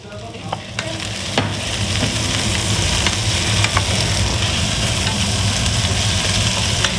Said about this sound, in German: einen wunderbaren Spargelrisotto gemacht, wo in der Pfanne gezischt hat. Sogar ein paar Spargel aus dem Garten von ihrem Vater haben sie zum Kochen gebraucht.